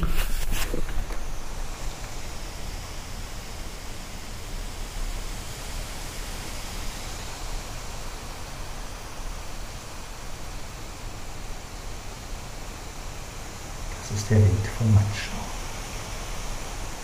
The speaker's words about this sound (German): Ja, ihr hört den Wind. Es sind noch keine Vögel unterwegs. Ich kann euch mal den Wind kurz zeigen. Wenn er nicht gerade nachlässt, mal gucken.